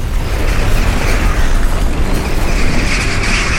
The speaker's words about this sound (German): Ein ohrenbetäubendes Donnergrollen fegte über den Park hinweg und machte unmissverständlich klar, das ist keines der Dutzenden leichten Beben im Jahr. Das hier war gewaltig.